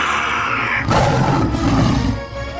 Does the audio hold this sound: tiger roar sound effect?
yes